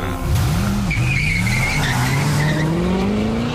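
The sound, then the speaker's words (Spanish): Tires of the presidential car known as 'the Beast' skid and squeal loudly on Madrid asphalt for several seconds, a continuous shrieking screech that wavers in pitch over a low engine roar, with no one speaking. “Llegado desde el otro lado del océano, el asfalto de Madrid está preparado para recibirlo Ríete tú del coche fantástico.”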